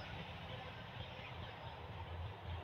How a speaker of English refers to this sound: I don't have this much traffic go by me in a month. Literally, I do not have that much traffic pass by me and hear it in a month or two.